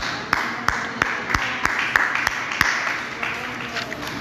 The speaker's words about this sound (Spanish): Gloria a Dios. Da un aplauso al Señor.